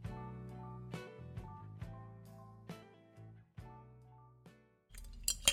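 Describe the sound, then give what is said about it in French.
Ice cubes clink against a glass of iced coffee in a series of light, ringing taps spaced a second or so apart, ending in a quick rattling jostle. Fairly quiet, with no voices. “je me suis fait un petit café avec des glaçons, évidemment.”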